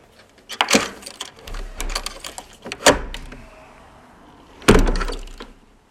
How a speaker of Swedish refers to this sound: jag står framför en mycket gammal dörr. En dörr med inskriptioner på. Jag har fått en gyllene nyckel. Jag tar upp den och låser upp dörren.